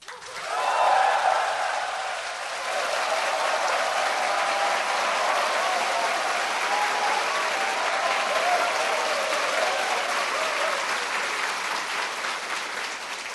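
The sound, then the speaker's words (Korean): Sustained applause from a large crowd of civil servants as President Roh Moo-hyun is introduced as the day's speaker, a dense crackling wash of many hands clapping that swells at the start and then holds steady and loud throughout, with no talking over it. “박수 쳐주면 좋죠.”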